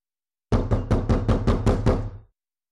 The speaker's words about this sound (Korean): 다음날 아침 흰 조끼를 입은 신사가 구비논 대문을 두드리다가 공고문을 읽으며 말했다.